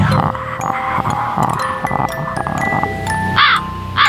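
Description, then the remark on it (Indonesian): A bird calls out in harsh, cawing bursts, with a loud rasping cry near the end, over a busy background of steady tones and faint murmuring voices. “Ah, bunyi burung lagi itu nggak lucu mas”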